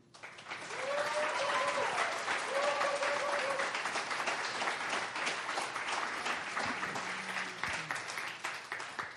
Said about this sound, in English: So, will you just give a round of applause for Lizzie Wasuda?